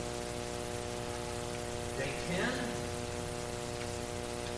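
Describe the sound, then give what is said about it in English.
Steady rain hisses evenly throughout, a soft continuous wash of drops with a low hum underneath, while a voice briefly speaks a couple of words midway. “Day five, it's still raining.”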